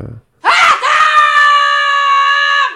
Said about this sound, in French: Et le, générique de, début s'ouvre par un cri de, Fabienne qui hurle, qui intime à ses enfants de, descendre euh, manger.